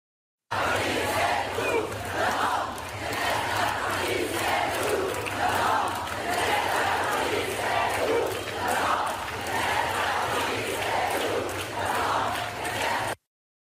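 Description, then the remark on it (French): A large protest crowd at the Radical Pride march in Paris on a Sunday chants far-left, pro-migrant and anti-police slogans in unison, loud and steady, with rhythmic pulses of massed voices repeating throughout over a constant low rumble. “Euh, elle se différencie notamment par des positions, cette Pride radicale, des positions pro-migrants et anti-police, avec notamment ces slogans d'extrême gauche. Écoutez.”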